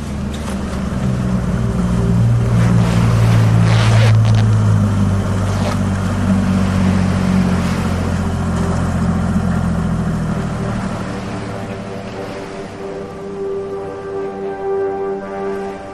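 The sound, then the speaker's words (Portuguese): A motorboat engine drones loud, a deep steady rumble mixed with rushing water and splashing as the boat is driven farther from the coast toward a diving spot, easing into a smoother, tonal hum toward the end. “ou na verdade você tem que conduzir o barco um pouco mais longe da costa para ir pro local”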